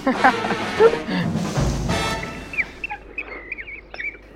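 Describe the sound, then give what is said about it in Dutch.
Outdoor meadow ambience in a meadow near Wisp, opening with a broad, rustling wash of noise, then a bird sings a string of quick, high chirps and short warbling phrases, clear. “we zijn in een weiland bij Wisp”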